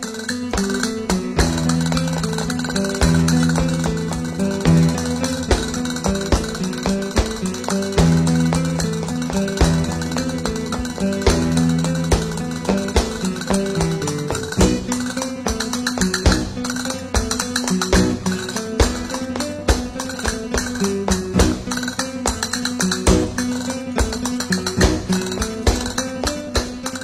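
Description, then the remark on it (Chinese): Rapid, crisp castanet clicks and percussive flamenco tap-dance footwork rattle steadily in a driving flamenco rhythm over sustained low instrumental tones, loud and continuous throughout with no voices; a rhythm in music by Ravel imitating Spanish castanets. “这个响板呢和他们脚下的踢踏舞的声音共同组成了弗拉明戈舞的这个节奏。”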